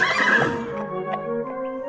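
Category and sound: animal, horse neighing sound effect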